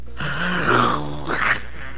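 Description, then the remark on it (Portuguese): A person imitates a panther's growl: one low, rough, sustained snarl lasting about two seconds, swelling slightly in the middle and rising into a raspier tone near the end. “Que é isso, tiozinho? A Pantera.”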